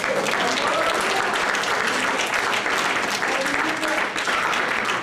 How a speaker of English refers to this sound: Somebody give the Lord a hand.